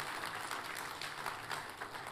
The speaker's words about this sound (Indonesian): Tepuk tangannya yang paling meriah buat Tuhan kita.